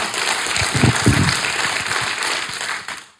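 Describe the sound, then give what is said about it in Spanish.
A crowd claps steadily to welcome people back home, a dense wash of many hands with a few sharper, louder hits early on, fading out at the end of about three seconds. “Bienvenidos a casa, un aplauso.”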